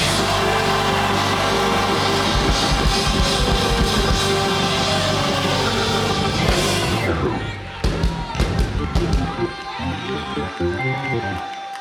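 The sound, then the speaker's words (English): An audience, told to put their hands up and scream, screams and roars together in a loud, dense wall of voices for several seconds, then the noise breaks into scattered shouts and thumping sounds. “If you want victory, hands up. Hands up. Now scream.”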